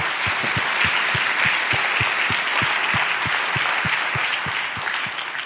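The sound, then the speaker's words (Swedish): An audience breaks into sustained applause, a dense wash of clapping with a steady rhythmic pulse of synchronized claps running through it, loud and even for the full stretch before easing slightly. “Amen, ska vi ge en applåd till det?”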